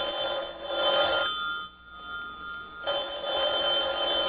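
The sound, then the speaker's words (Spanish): A telephone rings in two long bursts separated by a brief pause, a bright, steady electronic trill that sounds loud and alone, with no voices. “Ay, debe ser él otra vez, papá. De seguro que es él, pero no le contestaré. Voy a descolgar la bocina.”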